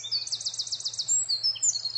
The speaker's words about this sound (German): auch mit diesem Vogel, der meine Botschaft mit seinem herrlichen Gesang begleitet.